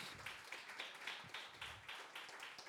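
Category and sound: crowd, audience applause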